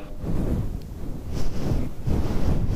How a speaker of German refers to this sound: Ja, und ich probiere das jetzt auch hier mit dem LSB5 und wenn auch ein Windschutz drauf ist und alles, dass dann diese Windplopp-Geräusche nicht mehr sind, denke ich mal,